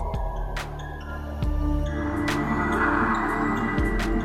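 A slow, breathy swell of airy hiss rises and fades over a low, steady droning hum, with a few faint clicks scattered through; no one speaks.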